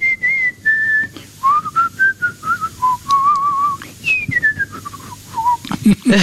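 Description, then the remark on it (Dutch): A person on the street whistles a melodic tune, clear, in a few flowing phrases with brief breaths between them and a faint low background hum. “Het is op straat iemand te horen die, die mij niet gezien had en bezig te siffleren.”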